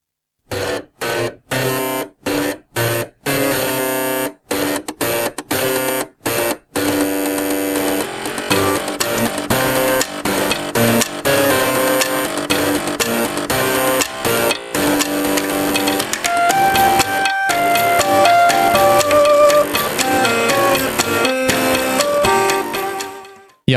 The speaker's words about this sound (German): Meine persönliche Lieblingsversion ist diese hier. Gespielt mit mindestens 80 alten Floppy-Disks, Druckern und Festplattenlaufwerken